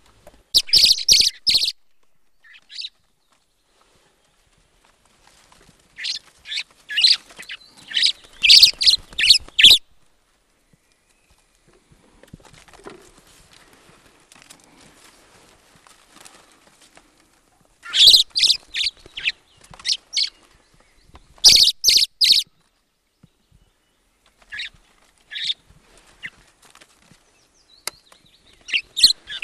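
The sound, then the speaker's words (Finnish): A common blackbird, recorded up close by its nest built on a board on a platform against a storehouse wall, sings in separate bursts of bright, warbling phrases broken by short pauses, with higher twittering notes mixed in. No one speaks and the background stays quiet. “Eli, eli on laitettu lauta vaan tueksi ja mustarastas on rakentanut sen laudan päälle pesen, eli tämä on tavallaan NS-pönttöpesintä mutta ääni on aika mielenkiintoinen.”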